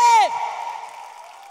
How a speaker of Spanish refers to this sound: Dale un aplauso fuerte.